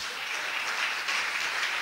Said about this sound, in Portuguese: Você pode aplaudir ele por isso, faça isso.